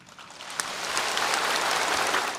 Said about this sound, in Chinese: 一句热干面加油，全场静默了三秒钟才拍手鼓掌。中国国家主席习近平在抗击新冠肺炎表扬大会上，用热干面这项武汉名产来称呼武汉，在场官员们一时反应不过来。